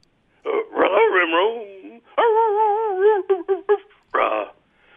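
A dog barks and yips in a string of bursts, with a longer wavering, whining call in the middle, then a few quick yips and one last bark.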